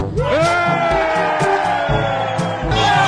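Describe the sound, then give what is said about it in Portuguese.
A large crowd erupts in loud, sustained shouting and cheering on being told that a government minister had been arrested and election fraud confirmed, voices overlapping in a dense roar with rhythmic thumps underneath, continuous throughout. “Os gritos que você acabou de ouvir foram dos patriotários ao serem informados de que o ministro Alexandre de Moraes havia sido preso”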